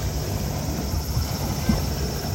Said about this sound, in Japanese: ここは海です海でございます